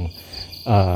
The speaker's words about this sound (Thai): อาจจะมีเสียงลมเสียงรถ เสียงหมาหอนเสียงจิ้งหลงจิ้งหรีดเรไรอะไรเนี่ยเป็นแบ็กกราวบ้างนะครับ